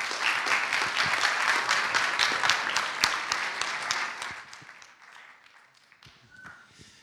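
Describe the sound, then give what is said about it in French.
An audience applauds the presenters before giving them the floor, steadily with dense, overlapping claps for about four seconds, then the clapping thins and fades, leaving a few scattered claps and faint murmuring at the end. “Je crois qu'on peut d'ores et déjà les applaudir et leur céder la parole.”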